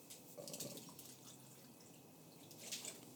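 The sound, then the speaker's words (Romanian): Water is poured into a glass in a steady trickle with a few dripping splashes, lasting a few seconds with no one talking over it. “O să-mi pun uh, apă, dacă e ok.”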